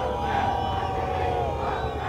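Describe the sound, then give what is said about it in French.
A large crowd on the esplanade in front of the Orléansville prefecture roars and shouts slogans at General de Gaulle continuously, many voices blending into a dense, sustained din with rising chant-like swells. “Une foule véhémente, hurlante, vous l'entendez, est là sur le terre-plein devant la préfecture pour crier des slogans au général de Gaulle.”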